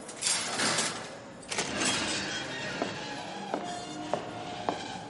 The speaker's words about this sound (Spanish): John y ella entran a un calabozo donde Leonard está sentado. Un agente cierra la puerta.